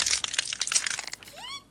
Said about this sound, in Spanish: Fíjate por la ventana, fíjate por la ventana. Están triturando los cuerpos de seres humanos.